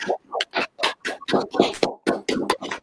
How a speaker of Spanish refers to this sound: activen su micrófono y les vamos a aplaudir porque se lo merecen sin duda alguna.